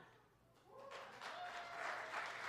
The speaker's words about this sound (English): You're clapping. That's good.